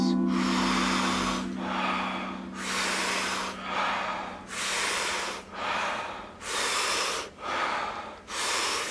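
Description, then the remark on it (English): Rhythmic, forceful breaths drawn in through the mouth by people lying on their backs, close to 40 powerful breaths taken together, each followed by a soft, relaxing exhale, repeating steadily about once a second, loud with no talking. “taking close to 40 powerful breaths into the body through the mouth, and the exhale is simply a soft, relaxing exhale big, powerful inhale, soft exhale.”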